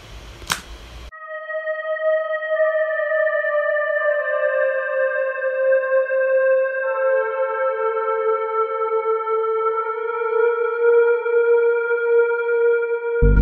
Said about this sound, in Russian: еще последний инструмент, по большому счету, который здесь используется, это лид, тоже из амнисферы. Вот такой.